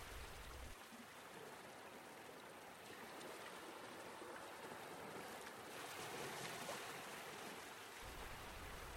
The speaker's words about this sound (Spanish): solo que observes cómo es que van y vienen estas olas, que te detengas únicamente a observar